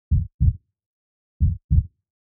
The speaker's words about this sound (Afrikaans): Wel, dokters gebruik 'n stetoskoop om na mens se hartklop te luister. 'n Hartklop klink iets soos die